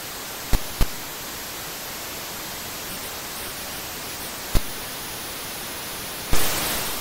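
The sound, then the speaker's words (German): Steady static hiss from a retro football video game, like a badly tuned radio, broken by a few sharp clicks, then a sudden louder rush of noise near the end as a goal is scored. “Das ist eigentlich nur ein Rauschen, was ein bisschen klingt wie ein schlecht eingestelltes Radio.”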